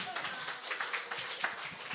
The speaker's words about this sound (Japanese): うわ拍手だ拍手。